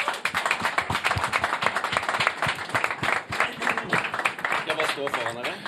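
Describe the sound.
An audience applauds steadily, a dense, even wash of many hands clapping that fills the whole stretch at a strong, constant level, with some voices mixed in underneath.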